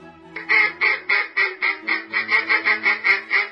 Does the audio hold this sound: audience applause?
no